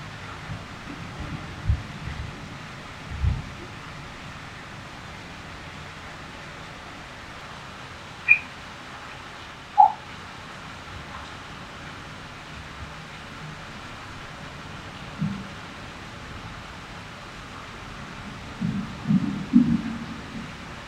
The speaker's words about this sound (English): Sabercat Creek runs down from the mountains, and before it reaches the bay, it goes through this tunnel underneath Highway 68.